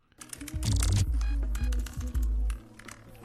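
Rapid clattering keystrokes on a computer keyboard, loud and close, with a hollow, reverberant ring and a deep low rumble underneath; no voices.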